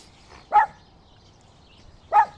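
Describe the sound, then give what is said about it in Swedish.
Two sharp, high-pitched yips or barks from the dog Tyra, spaced well apart against a quiet background, clear. “Och nu har Tyra börjat eh, ge ljud ifrån sig här också.”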